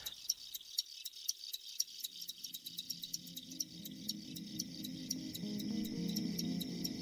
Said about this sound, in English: In my opinion, the sound of a chorus of crickets is rivaled only by ocean waves or wind through aspen trees. There are a number of reasons they do this. It's the males who, who do this.